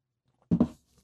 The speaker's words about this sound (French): je vais prendre une petite gorgée, ça va pas long.